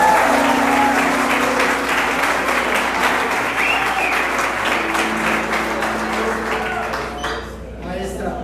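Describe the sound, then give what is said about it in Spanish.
An audience claps steadily for several seconds, a dense patter of many hands that stays fairly even before thinning out near the end, with some voices mixed in. “No, pero ese aplauso está mediocre.”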